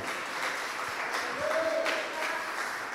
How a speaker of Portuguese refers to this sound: se você crê nisso, aplauda Jesus bem alto.